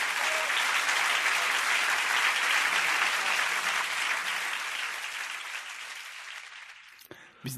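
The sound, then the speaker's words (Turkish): An applause sound effect: a crowd's dense crackle of many clapping hands that holds steady for several seconds, then gradually thins and fades away near the end. “Ee, bu alkış efektlerini bazen hiç sevmiyorum.”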